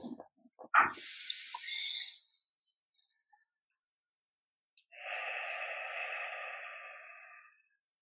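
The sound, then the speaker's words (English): Two long, airy nasal breaths, a slow inhale followed after a pause by an equally slow exhale, soft with a faint hissing quality, preceded by a brief rustle. “So breathing in All through right, the nose so, and out through the nose as slowly.”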